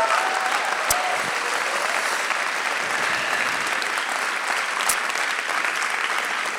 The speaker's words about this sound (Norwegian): Så jeg syns vi skal bare gi en kollektiv saltapplaus til alle de folkene, selv om de ikke hører oss.